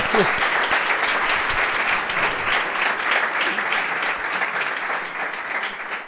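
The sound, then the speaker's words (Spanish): Steady audience applause fills the whole stretch, a dense crackle of many hands clapping at a fairly loud, even level, with a faint murmur of voices underneath at the very start. “Yo creo que se merecía la cuña publicitaria como poco y un aplauso.”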